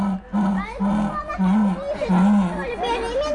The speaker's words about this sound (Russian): Просили ягуара, пожалуйста. Ну, это настоящий ягуар, звучит вот так. Вот это, это вы хотели как послушать, как он рычит? Пожалуйста. Сколько цилиндров? F-Type.